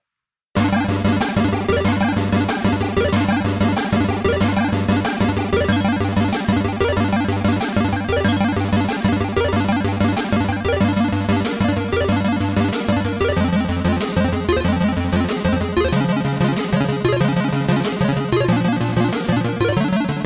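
An Amstrad CPC chiptune soundtrack from Ocean's 1989 game Batman the Movie plays throughout, with dense buzzy square-wave melodies over a steady bass line and rapid, regular percussive ticks, staying loud and even from start to finish.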